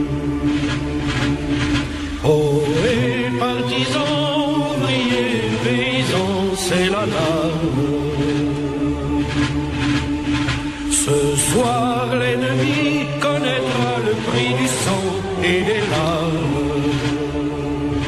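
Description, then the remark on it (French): A wartime French Resistance partisan song, sung in French with slow, sustained melodic vocal lines over full, steady accompaniment, loud and continuous throughout with no speech. “c'était le chant des résistants français qui combattaient le joug des nazis.”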